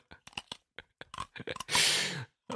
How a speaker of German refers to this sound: Warum kaut man Eiswürfel?